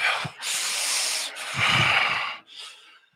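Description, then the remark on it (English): Heavy, frustrated breathing of someone waiting in a long store checkout line: two long, loud, rushing breaths, the second with a snorting rasp, then a softer, shorter one. No one speaks. “Now, at this point, my wife is very, very controlled, but you can sense the breathing inside of me.”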